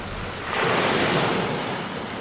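Sea waves break on the shore in a broad, hissing surge that swells and slowly recedes, with a steady wash of surf and a bit of wind in the background.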